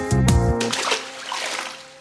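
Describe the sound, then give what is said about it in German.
Someone dives into deep water: a sudden loud plunge, followed by a couple of seconds of bubbling, sloshing splashes that fade gradually. No one speaks. “Wir tauchen in die Tiefe und wir haben unsere Ruhe.”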